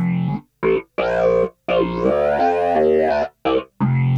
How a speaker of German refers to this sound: und man ist automatisch geneigt, wenn man diesen Sound hört, den Mund mitzubewegen, weil dieser Sound wirklich so ist, als wenn jemand einen Bass durch so, ein, so eine Talkbox sprechen würde.